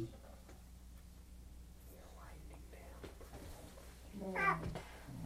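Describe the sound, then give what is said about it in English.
A cat named Prue gives a single short meow near the end, clear, after several seconds of quiet background noise with faint whispering. “Prue Kitty. Kitty.”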